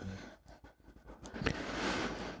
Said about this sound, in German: Ähm, so, als kurzer Einwurf, ich entschuldige mich für den Lärm im Hintergrund. Die Katze nimmt irgendwie den Bürostuhl auseinander.